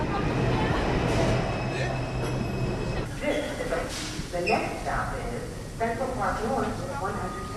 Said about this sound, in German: Jetzt kommt unsere U-Bahn.